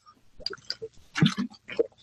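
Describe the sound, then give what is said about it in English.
Wet mouth sounds of someone taking a sip of water, with soft gulps, slurps and small liquid clicks over about two seconds, no talking. “As I get a drink of water”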